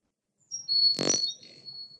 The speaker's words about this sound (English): so if you look if you, if you look at a, a, a chickadee, so here's the song of a chickadee